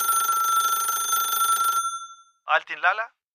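A telephone rings in one long, steady trilling burst that fades out, followed after a brief pause by a short spoken phrase.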